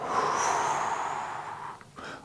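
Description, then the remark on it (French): A long, steady breath blown out through the mouth while drawing in the belly during a breathing exercise, an airy hiss lasting about two seconds that fades slightly toward the end, fairly soft with no talking. “Vous bloquez la respiration pendant quelques secondes, 2, 3, 4 secondes selon ce que vous pouvez, et vous soufflez par la bouche”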